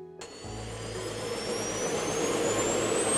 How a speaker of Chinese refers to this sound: 当然，在开始今天的主题之前，要先为你们大家营造搭飞机的氛围，你们才能够感受得到正在搭飞机的听觉感受。那我们现在准备要起飞喽？